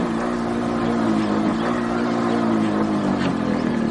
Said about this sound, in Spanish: Más tarde los dos amigos viajan en la moto